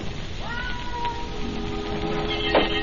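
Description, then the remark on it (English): A cat lets out a drawn-out, wavering yowl, moderately loud against a steady hiss of background noise, followed by a brief scuffle or clatter near the end. “Lame cat make as much noise as a garbage collector.”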